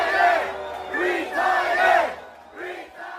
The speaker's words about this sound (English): He couldn't even speak. During his entire speech, he tried to speak, and the crowd chanted, Retire, retire, retire. He's finished. He's that's in Kentucky. Those are his people.